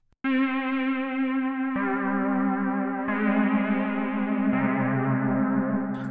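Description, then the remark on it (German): A software synthesizer's sustained drone with rich, buzzy harmonics, playing the first sound source of its synthetic Layer B as a knob is turned up to morph; the timbre shifts in four abrupt stages, growing brighter and thicker over about six seconds with no voices. “Jetzt gehen wir zu Layer B und da der erste Sound Source.”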